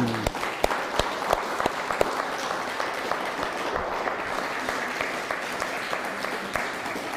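Sustained applause from a crowd, a dense, steady wash of many hands clapping with sharp individual claps standing out, holding at a fairly even loudness for about seven seconds.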